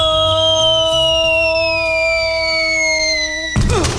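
A loud ambulance siren holds a steady, slightly falling wail for several seconds, then cuts off abruptly into a short burst of harsh, clattering noise.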